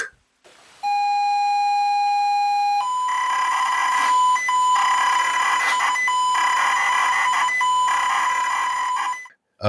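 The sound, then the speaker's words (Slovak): ZX Spectrum tape loading sounds of a program: a steady, piercing pilot tone for about two seconds, then a loud, harsh, buzzing stream of rapidly warbling data noise with brief gaps, heard alone. “je tam to zapípanie, je to zo Sinclair ZX Spectrum loadovanie programu a tu dudu, to nejaká hra mala tam také pípnutie, ale to si už nespomeniem.”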